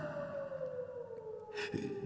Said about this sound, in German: Die Wölfe? Ja, die Kinder der Nacht. Was für eine Musik sie machen. Hören Sie.